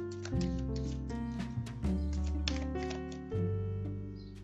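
Tarot cards are drawn and laid out from a deck, with several crisp flicks and snaps at uneven intervals over a steady, sustained musical background. No one speaks.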